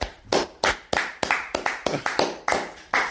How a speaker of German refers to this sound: Also ich finde, ist mal ein Applaus wert.